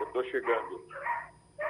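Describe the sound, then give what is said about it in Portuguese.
A dog barks several times in quick succession, loud and sharp, followed by a person speaking briefly. “Cuidado que esse cachorro lhe morde.”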